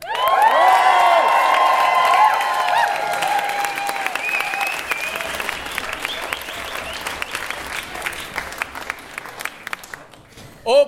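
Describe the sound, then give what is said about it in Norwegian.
A crowd bursts into loud applause with whoops and cheers for two battle rappers as they are introduced, the shouting strongest at first, then settling into sustained clapping that gradually fades over about ten seconds. “Lag noe lyd for …!”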